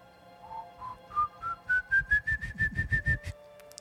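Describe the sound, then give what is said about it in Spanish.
A close, fairly loud whistled tune imitating the ghost El Silbón, with an eerie feel: a dozen short notes climb steadily in pitch, then repeat on a high note in a quick, pulsing rhythm before stopping abruptly. “El Silbón”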